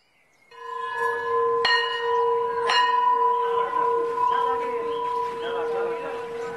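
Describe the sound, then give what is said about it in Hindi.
A school bell rings loudly, its sustained metallic tone struck sharply twice and humming on, with a faint busy murmur in the background. “एक दिन जब स्कूल की घंटी बजी तो मैं उसी तरह गेट की तरफ दौड़ा”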